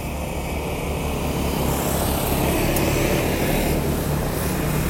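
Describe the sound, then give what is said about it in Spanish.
A car passes by with a steady, fairly loud engine and road rumble that holds throughout, swelling slightly in the middle, with no voices. “Espérenme que vea un auto.”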